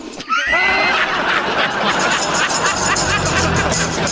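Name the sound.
horse neighing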